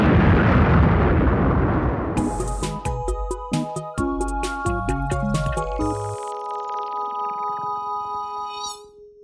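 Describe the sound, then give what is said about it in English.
A huge sci-fi space station explosion: a deep, roaring blast gives way to shimmering, metallic electronic tones that ring out and slowly fade. No one speaks. “For the sound effects, this includes everything from footsteps, cloth rustle, the handling of props, to sound of vehicles, weapons, aliens, and exploding Death Stars.”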